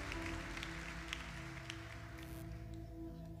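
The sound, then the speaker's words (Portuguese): A church audience applauds steadily to thank God, a dense wash of clapping that carries through the whole moment over a sustained, droning keyboard chord, with no voices standing out. “Quem pode agradecer a Deus pela aliança que tem na mão? Pode aplaudir o Senhor.”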